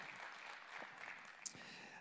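A crowd claps steadily in sustained, dense applause lasting a couple of seconds, with a sharp higher accent partway through, not accompanied by speech; the applause honors the life of a pastor.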